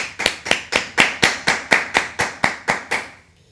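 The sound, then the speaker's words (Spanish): Applause welcoming the members of a church gathering, in the form of about eleven sharp, evenly spaced handclaps, roughly two per second, crisp and fairly loud with no talking, ending abruptly. “Un fuerte aplauso a todos ustedes.”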